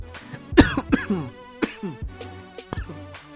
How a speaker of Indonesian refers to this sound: ah sorry wah jarang-jarang kan podcast ini batuk